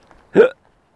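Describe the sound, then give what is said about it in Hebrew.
A single loud hiccup, a short voiced burst with a tonal, slightly strained quality, preceded by faint breathy sounds and followed by silence. “מגהק אתכם החוצה.”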